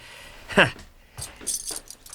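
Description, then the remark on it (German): A small bunch of keys with a locker key jingles in a few short metallic bursts, one sharper clink near the start followed by lighter rattling. “Ist das der besagte Schlüssel, den Sie vermissen? Der Schließfachschlüssel.”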